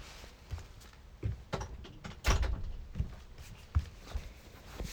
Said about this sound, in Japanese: ちょっとドアがちょっと開いてるから閉めてきます。